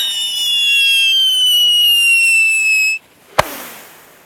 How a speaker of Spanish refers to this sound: Bueno, antes de la trivia tenemos una pequeña ceremonia de fuegos artificiales.